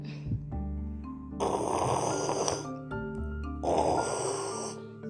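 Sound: voice imitating loud snoring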